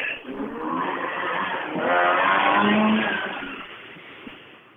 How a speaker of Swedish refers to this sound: men jag tror att hans trimmade bil låter som en Wok, eller hur?